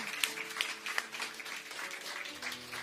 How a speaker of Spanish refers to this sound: ¿Le puede dar otro aplauso al Señor? Fuerte para el Señor.